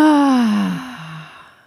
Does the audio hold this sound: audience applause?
no